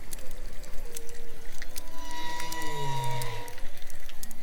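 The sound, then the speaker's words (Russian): An underwater ocean recording from a work by a Norwegian sound artist, with long, sliding tonal calls that rise and fall like whale song, set against a steady low rumble and scattered clicks, with no voices present. “собрала такую компиляцию, из которой слышно, как звуки здорового океана постепенно сменяются антропогенной какофонией”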